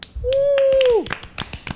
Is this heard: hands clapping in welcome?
yes